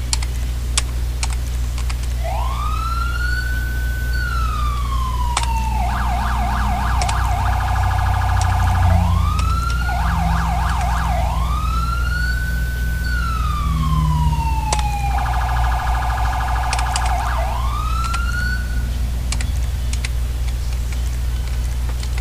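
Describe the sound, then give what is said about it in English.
A video game emergency siren cycles loudly through rising and falling wails alternating with rapid yelping bursts, repeating for over twenty seconds over a steady low engine hum, with faint keyboard clicks in the background. “It's a better siren. Watch this.”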